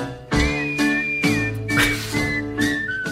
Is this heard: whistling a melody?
yes